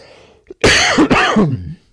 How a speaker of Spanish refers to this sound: no, no, era porque como estás tosiendo, digo, bueno, pues voy a seguir, pero bueno, no te preocupes.